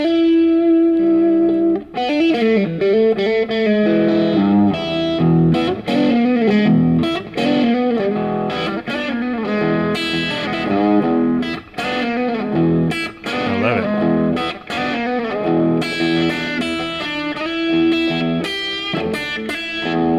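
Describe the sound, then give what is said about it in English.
An electric guitar played through a small Boss amp with a gritty, slightly distorted tone, strumming chords and picking melodic lines steadily for about twenty seconds with no talking. “Or we're going into this little Boss amp over here.”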